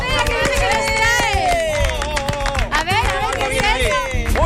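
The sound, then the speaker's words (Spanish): Studio applause celebrating a first anniversary, with steady clapping mixed with cheering and excited voices calling out over it, loud throughout. “Un aplauso, primer año de vida.”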